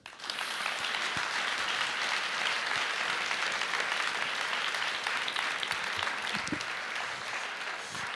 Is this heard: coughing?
no